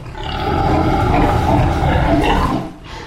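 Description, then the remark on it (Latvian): Many Latvian White pigs grunt and squeal together inside a pig barn on a small farm, a dense, loud, continuous chorus that drops away briefly near the end. No one speaks. “Saimniece pēc nelielas instrukcijas labprāt cūku novietnē ienes manu diktafonu un telefonu, lai ierakstītu skaņu un uzņemtu pāris bildes, jo nelielajā mežmelas fermā cūku mēra risku un biodrošības prasību dēļ es nevaru tikt.”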